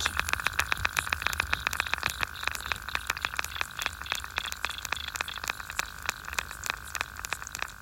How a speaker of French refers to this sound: En s'approchant encore plus près de la source sonore, quel est ce bruissement Soudain, c'est la révélation. De minuscules insectes, des punaises aquatiques, grouillent sous la surface de l'eau.